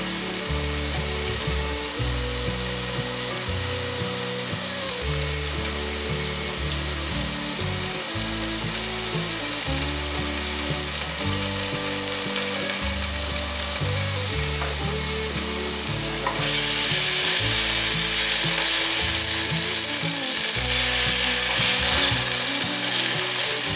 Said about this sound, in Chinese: 炒一炒，煎一煎，再盖上锅盖。我大概焖了十秒左右，杏鲍菇的边边还没有上色，可以把杏鲍菇的侧边站起来，这样子煎。